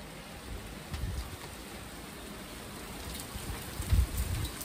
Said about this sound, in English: I'm on my balcony. Wow, it's definitely been coming down. Oh. It's not raining nearly as much anymore and there's now more cars. So that's in a sense a shame. But we've had thunder. Ooh, some loud thunder too.